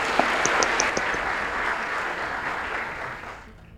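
A burst of applause from a crowd for a guest, dense steady clapping with a few whistle-like chirps early on, holding loud for about three seconds before tapering off at the end.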